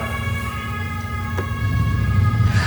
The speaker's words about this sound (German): Oh, wir, haben hier, wir sind hier mitten in einer schönen Speicherstadt in Hamburg und gerade fährt hier ein Krankenwagen vorbei.